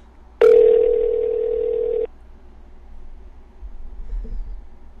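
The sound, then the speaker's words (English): An outgoing phone call placed live on air rings out: one steady electronic ring tone lasting under two seconds, loud, followed by near silence with faint low rustling. “give this give this broad a uh, good old call real fast.”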